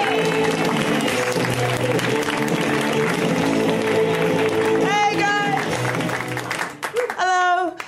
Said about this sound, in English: Really excited about your next guest, everybody. She's here from all the way from the UK. I need a big round of applause to welcome everybody, Andy Osho.